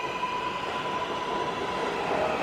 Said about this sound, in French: Mais avant que j'aie pu dire quoi que ce soit au petit homme, les portes de la voiture se ferment et le métro reprend à toute vitesse.